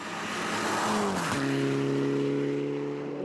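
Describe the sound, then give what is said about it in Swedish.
A rally car engine roars and bangs steadily in a forest, its pitch dropping abruptly midway with a sharp crack before settling into a sustained drone, heard alone over a constant rushing background noise. “det smäller borta i skogen här, så det kan mycket väl vara Berglund som kommer”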